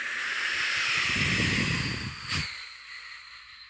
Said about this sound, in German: Weil ich bin nämlich im tiefen Wald und es ist so kalt und ich muss ganz langsam sprechen, damit man mich versteht. Denn es geht hier ein Wind.